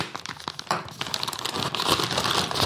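Crinkly plastic packaging of a mountain parmesan (bergsparmesan) cheese being crumpled and torn open during a cheese tasting, a dense run of rustling crackles that builds in loudness over a few seconds, with no talking.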